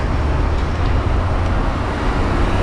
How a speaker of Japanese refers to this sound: 今日はなかなかな車が多いですね